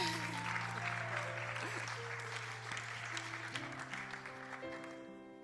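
A crowd applauds a male speaker, clapping steadily and fairly loudly for several seconds, a dense wash of applause that fades slightly toward the end, with sustained musical tones held underneath.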